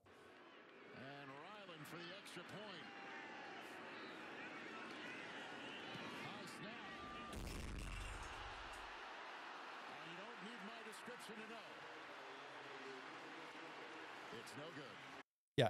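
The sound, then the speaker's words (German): A missed extra-point kick in American football slams into the wind marker on top of the goalpost with a single loud, booming thud midway through, while several voices chatter continuously around it. “Der Ball äh, donnerte schön an den Windmarker oben äh, ran.”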